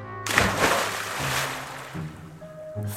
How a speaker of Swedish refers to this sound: Men så, när de nästan var framme vid andra sidan vattendraget hördes plötsligt plums, plask och skvätt.